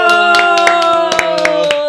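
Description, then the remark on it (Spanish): Steady rhythmic hand clapping at a New Year greeting, about eight or nine sharp claps at an even pace, over a continuous tonal hum in the background. “Se aplaude”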